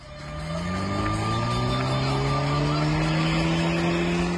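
Tires squeal loudly and continuously as a car in a wedding convoy does a burnout on the Bursa–Mudanya road in Bursa, the high-pitched screech sustained with shifting tones over a steady engine roar, with no talking.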